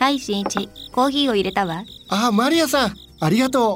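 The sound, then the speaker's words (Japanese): Insects chirp faintly outside in late autumn, with short high-pitched trills that come through in the pauses while two people hold a conversation in the foreground. “外から虫の声が聞こえますよ秋も深まってきましたね”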